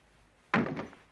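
Folding chairs in a dining corner flip down with a sudden wooden clack followed by a brief rattling clatter that fades within half a second. No one speaks.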